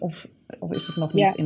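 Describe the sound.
A bright, sustained bell rings in the Tweede Kamer (Dutch House of Representatives), the bell that always sounds early in the morning as the parliamentary day begins, steady and ringing on beneath conversational speech that dominates the foreground.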